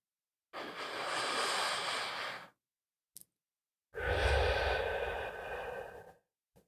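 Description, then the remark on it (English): One slow, deep breath drawn in for about two seconds, a brief pause, then a long, airy exhale like a sigh. Clearly audible, with no talking. “Let's take another deep breath in and out.”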